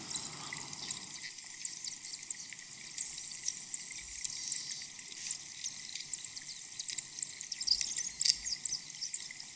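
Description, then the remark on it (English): Recorded underwater with hydrophones, air about 10,000 years old escapes as bubbles from drifting lumps of melting glacier ice: a dense, continuous fizz of tiny crackles and pops with occasional brighter, high-pitched bird-like chirps, steady, with no voices. “This is basically 10,000 year old air that's been trapped in the glacier, slowly coming out of the, of the, the lumps of ice as, it, as they drift past.”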